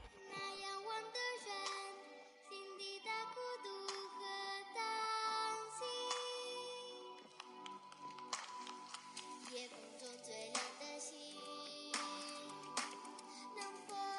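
A children's choir sings together in bright, high voices, holding sustained melodic lines with steady loudness, and sharp percussive accents cut in through the second half.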